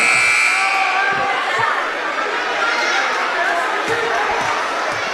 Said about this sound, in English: Why did they just blow the buzzer while Gargas had the ball at the free throw line?